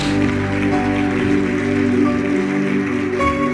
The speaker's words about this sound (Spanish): Denle un aplauso a nuestro Dios, por favor.